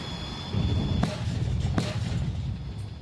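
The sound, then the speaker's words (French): Two sharp, booming reports from a naval gun aboard the French Navy frigate Forbin during crew firing training at sea off Greece at 9 a.m., less than a second apart, over a steady low rumble of wind and ship engines, with no one speaking. “Entraînement au tir pour l'équipage de la frégate Forbin. Ils vont tirer”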